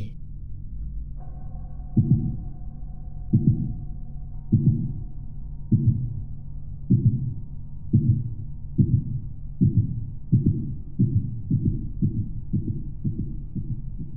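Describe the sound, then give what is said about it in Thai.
A loud, pounding heartbeat thumps in low, booming pulses, slow at first and then quickening into a rapid, steady rhythm over a faint low hum, with no voices. It is heard while running and seems to come from the house itself: its walls, floor and ceiling pulse in one rhythm. “ขณะที่กำลังวิ่ง ผมได้ยินเสียงหัวใจเต้นดังชัดเต็มสองหูแต่ไม่ใช่ มันไม่ใช่เสียงหัวใจของผม เสียงมันมาจากบ้านหลังนี้ ทั้งกำแพง พื้น หรือแม้แต่เพดาน ทั่วทุกมุม ขยับเป็นจังหวะเดียว”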